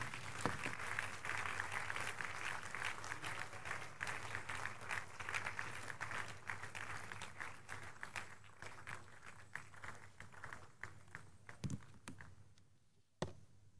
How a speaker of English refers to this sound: Please rise up on your feet. Put those hands together for Jesus in appreciation. Let's appreciate him.